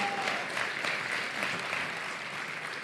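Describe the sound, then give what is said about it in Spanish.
An audience applauds steadily at an awards ceremony, after Cuatro Picas is announced as winner of the sports category: a dense wash of many hands clapping at an even loudness throughout the few seconds, with no voices speaking over it. “Un fuerte aplauso.”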